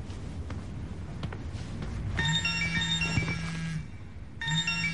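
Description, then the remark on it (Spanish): A writer's mobile phone rings with a bright electronic tone, a steady harmonic burst lasting about two seconds, a pause, then the ring starting again over a low background hum, left to ring unanswered. “Mira hacia su móvil con rostro inquieto dejándolo sonar.”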